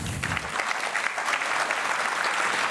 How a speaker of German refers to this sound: Darf man gern mal klatschen, ja. Das ist jetzt auch bewegend.